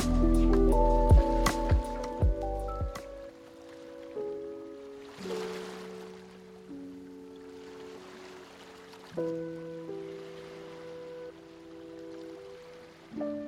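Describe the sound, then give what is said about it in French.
Soft ocean waves wash in and recede in slow swells beneath calm, sustained musical tones, the watery hiss rising and fading several times with no one speaking. “Et toujours face aux vagues, prenez conscience de votre capacité à vous délester du négatif pour trouver le calme en vous.”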